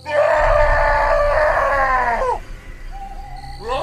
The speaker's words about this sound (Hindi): जैसे ही वो छलावा उस पत्थर पर बैठा उस गरम पत्थर पर बैठ इतनी जोर से चिल्लाया